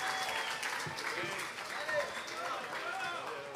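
audience applause and cheering

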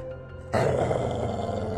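dog growling

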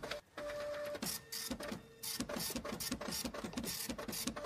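printer printing

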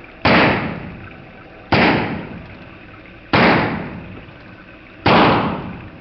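gunshots

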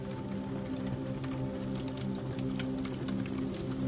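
crackling fire

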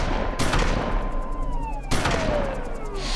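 shotgun gunfire

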